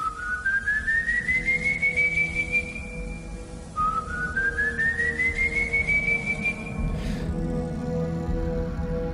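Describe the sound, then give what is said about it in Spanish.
Two long, drawn-out whistles, each sliding slowly upward in pitch and then holding a steady note, sounding eerie over a low, murky background rumble, evoking the whistling creature of a folk legend from the plains of Venezuela. “Quizá alguien entendió o le pareció escuchar algo como esto.”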